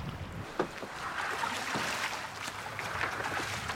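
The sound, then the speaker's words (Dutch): Water sloshes and splashes steadily around a small rowing boat crossing choppy open water toward the island of Lazaretto Nuovo. Periodic oar strokes break the surface over a constant wash of wind and waves. “Maar nu is het nog even roeien, roeien, roeien, pompen of verzuipen.”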